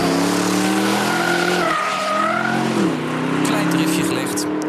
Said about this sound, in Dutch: Nee, dat waren wij. We waren deze week even gaan rijden bij Kooijmans. Even dikke driften. Ja. Met de Aston Martin DBX.